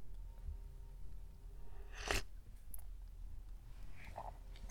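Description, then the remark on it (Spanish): A quiet pause filled by someone sipping coffee: a brief sharp clink or slurp midway, then a few soft mouth and cup sounds against a low background hum, with no talking. “Pausa para trago de café.”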